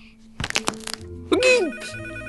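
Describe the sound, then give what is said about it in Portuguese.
A telephone bell rings during a party in a short, rapid burst of metallic strikes, fairly loud, before a voice cuts in with an excited shout over a low background hum. “telefone! Desliguem a música!”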